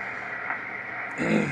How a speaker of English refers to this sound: so we know we're somewhere getting close. Hang on. Let me turn this down so I don't have to yell over the static.